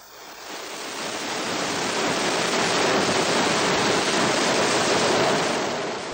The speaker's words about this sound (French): la mise à feu en direct. Allumage des EAP, décollage. Et Ariane qui s'élance maintenant dans l'espace